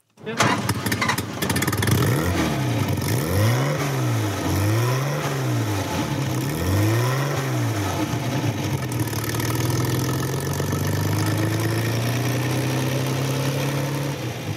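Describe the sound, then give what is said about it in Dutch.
A car engine cranks and fires up, then revs three times in quick rising-and-falling bursts before settling into a steady, deep idle that rumbles on. No one speaks. “Een je de geur van olie, benzine komt je tegemoet met, eh, met dit geluid.”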